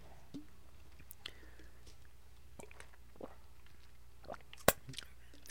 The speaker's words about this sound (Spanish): Perdón, pero hay que tomar agua.